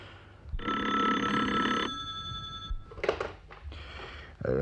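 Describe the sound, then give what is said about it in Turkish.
A telephone bell rings in one long, loud burst, then stops; afterward a receiver is picked up with some clattering and handling noises. “neredesin nereden telefon açıyorsun?”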